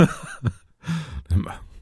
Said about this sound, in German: Was man weniger gut schneiden kann, ist, wenn jemand halb hustet und während dem Husten das Lachen ah. anfängt und sich reindreht wieder ins Mikro.